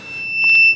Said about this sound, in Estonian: Telefon kuus, kaks, üks, neli, kuus, neli, kuus on taas helisenud